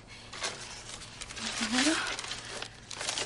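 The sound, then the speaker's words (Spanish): Soft crinkling and rustling of a wad of paper banknotes being handed over, with a brief low vocal murmur partway through and quiet background noise. “Le da un fajo de billetes.”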